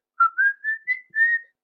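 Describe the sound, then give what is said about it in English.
A short whistled McDonald's advertising jingle: five clear notes that rise slightly and then hold steady, the last one drawn out, with no talking. “Think of the McDonald's”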